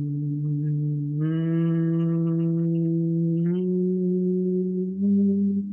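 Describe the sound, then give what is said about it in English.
A person hums one long, steady tone, stepping the pitch upward a couple of times and shifting it near the end, with no words spoken. “I'm playing with my hum there for you to find uh, where it feels good in your body, where you like the sound of the hum.”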